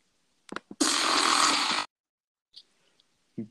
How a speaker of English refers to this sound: Bro, imagine a fart like that. That'd be insane.